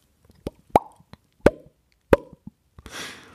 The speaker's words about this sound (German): Draußen hörten wir immer weiter die Ploppgeräusche und Schreie.